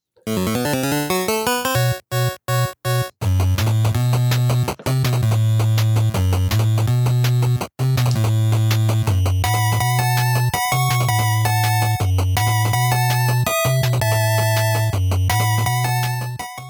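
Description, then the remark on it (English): A loud, up-tempo synthesized video game theme for the character Shadow Man plays alone, with a driving bass line, bright layered melody and a few sharp stop-start hits early on. “Let's get our uh, our 15 seconds of both of these here. Here's Shadow Man.”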